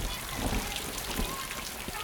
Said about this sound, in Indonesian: Tapi hujan macam tambah deras ini kakak, tak apa-apa kah?